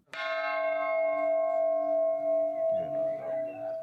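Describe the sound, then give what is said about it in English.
A large peace bell is struck once by U.S. President Joe Biden and Irish President Michael D. Higgins at the Irish head of state's official residence in Dublin, ringing out loud, its rich, layered tone sustaining steadily for several seconds, with faint crowd noise stirring underneath toward the end. “Higgins rang a peace bell”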